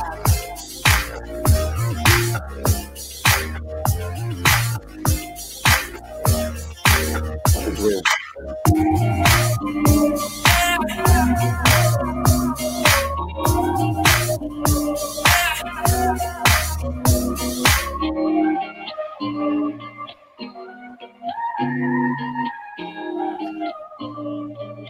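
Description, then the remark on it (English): An instrumental hip-hop beat by a producer, with punchy, steady, loud drum hits over layered melodic parts; near the end the drums drop out, leaving the melody alone. No one talks. “So with that said, is anybody here cutting this beat?”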